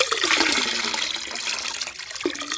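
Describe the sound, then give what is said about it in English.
River water gushes and splashes steadily as it is poured from buckets in a heavy stream into empty barrels, loud throughout, with a brief gurgle near the end and no voices. “So the two of them went, and they carried buckets from the river and filled all the barrels, all of the empty barrels, filled them with water from the river.”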